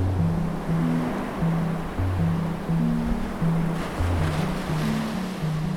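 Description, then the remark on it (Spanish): Ocean waves rumble and wash against the shore in a steady roar that swells and recedes every second or so, with a low sustained tone running underneath and no voices. “El agua está fría, las olas rugen.”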